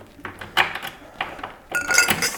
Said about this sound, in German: Ja, die Spülmaschine muss ich auch ausräumen.